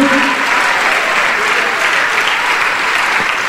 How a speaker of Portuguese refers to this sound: E vamos aplaudir o Senhor Jesus por essa grande colheita. A igreja se alegre e glorifique a Deus. A igreja aplauda mesmo.